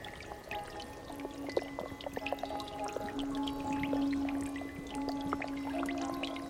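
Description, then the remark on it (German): Water drips and trickles steadily, with bright plinking drops falling over a continuous gurgling flow, moderately loud for several seconds, no voices. “Tropf.”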